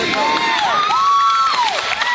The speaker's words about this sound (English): Bystanders on the beach erupted in cheers when the last person was rescued.